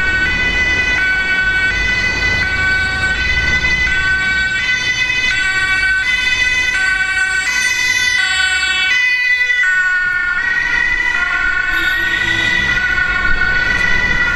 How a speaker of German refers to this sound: Das war mal durch Zufall, wie laut er wird, wenn ein Krankenwagen dicht vor mir ist, ob er dann runterregelt. Das habt ihr jetzt ja gehört.